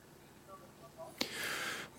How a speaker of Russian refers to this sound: Да, небольшие помехи Но... у нас на линии.